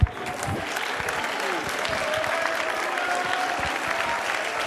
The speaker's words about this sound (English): Go and clap your hands unto the Lord.